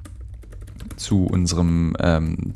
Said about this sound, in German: Und ihr hört mich tippeln im Hintergrund. Ich suche sie gerade im Internet.